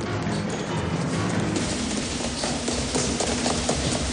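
Quick, hurried footsteps pound in a steady rhythm as someone runs up the stairs of a building, with others following some floors below, several sharp, fairly loud footfalls over a dense background rumble.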